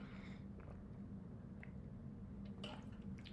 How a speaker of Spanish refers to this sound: Déjame tomar agua.